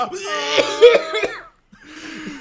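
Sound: imitated coughing fit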